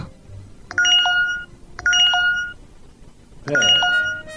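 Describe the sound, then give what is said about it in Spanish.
A phone's electronic notification chime sounds three times in quick succession, each a bright multi-tone jingle lasting under a second, clear against a quiet background, as many messages arrive at once after the phone connects to Wi-Fi. “¡Qué manera de sonarle el teléfono, che! Están entrando todos los mensajes juntos, porque no tengo saldo y tampoco tenía wifi.”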